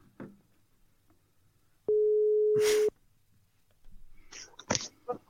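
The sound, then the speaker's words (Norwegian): A single steady ringing tone of an outgoing phone call to a city politician sounds for about a second, cut by a brief noisy burst near its end, then voices begin speaking. “Prøv å ringe, du.”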